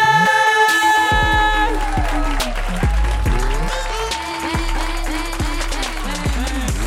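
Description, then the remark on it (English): An audience applauds steadily for several seconds as Chris Thayer is introduced, a dense, continuous patter of clapping mixed with loud walk-on music with a thumping bass and sustained tones. “Everybody, please give it up for Chris Thayer.”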